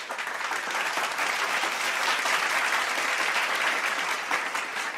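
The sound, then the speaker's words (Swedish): A burst of applause from a group, steady dense clapping that fills the whole stretch at an even, fairly loud level, with no voices standing out. “Det kan vara värt en applåd va?”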